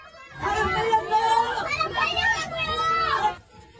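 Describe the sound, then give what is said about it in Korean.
A sudden burst of overlapping crowd noise in a Seoul subway Line 9 train heading to Sinnonhyeon Station at about 8:30 in the evening, after foreign passengers screamed while watching an idol video: many panicked passengers chattering and calling out at once, loud and continuous for about three seconds before cutting off. “지하철 안이 갑자기 소란스러워집니다.”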